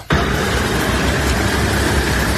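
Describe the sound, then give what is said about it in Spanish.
Loud, continuous rumble of heavy trucks at the Rafah border crossing, with deep engine drone and broad roaring noise that cuts in abruptly and holds steady, with no voices. “Este es el sonido de los camiones en Rafa en un eh, vídeo que ha difundido jamás.”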